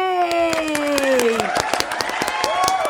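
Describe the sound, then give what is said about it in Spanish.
An audience claps steadily and fairly loudly to welcome two guests, the sharp, irregular claps blending together, while voices whoop and cheer over them with rising and falling calls. “Así me gusta que la audiencia aplauda con ganas.”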